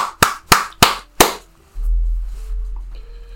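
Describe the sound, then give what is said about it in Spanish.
Four sharp, evenly spaced hand claps, loud and crisp, followed by a steady low rumbling hum once the clapping stops. No one speaks. “Muy bien, un gran aplauso.”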